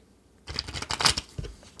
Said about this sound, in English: i've been sitting here shuffling my deck of cards i'm going to give it one more good shuffle